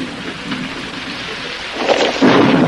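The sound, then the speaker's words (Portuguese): Steady rain hisses throughout while thunder rumbles low underneath, building into a louder rolling crash near the end, in the early hours before dawn. No voices are heard. “Esse que, na meio da chuva, de madrugada, o cara consegue entregar um, né?”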